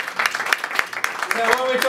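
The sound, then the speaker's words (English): Scattered audience applause crackles steadily throughout, dense, with a few voices calling out faintly toward the end. “Please have a seat and a big applause for his DNA.”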